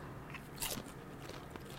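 A crisp bite into a crunchy nacho chip, with a sharp crackling snap followed by a few softer crunches of chewing, fairly quiet with no talking.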